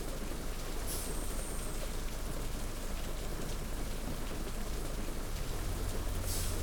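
Steady, dense rain pours throughout a thunderstorm, a continuous hiss with a deep low rumble of thunder swelling near the end. No voices.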